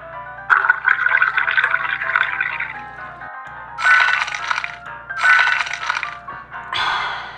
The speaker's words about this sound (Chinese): 湖面上的冰块好像开始碎裂了。哇哦，冰块融化了，乌贼也恢复自由。